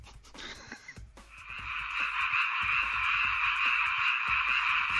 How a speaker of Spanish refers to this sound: Si le dices al asistente virtual de Amazon, eh, sonidos ambientales, esto es lo que te dice. Alexa, sonidos ambientales. Bienvenido a Sonidos Ambientales. Quizás quieras probar océano esta vez. ¿Qué sonido te gustaría? Eh, sapos.